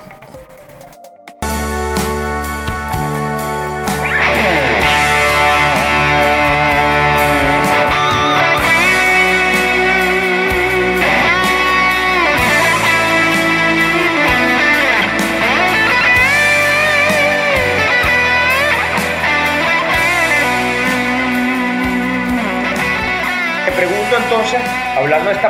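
A soaring electric guitar solo with bent, sustained notes rides over a full rock band backing, loud and continuous after a brief quiet opening.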